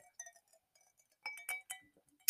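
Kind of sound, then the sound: food or drink, sipping wine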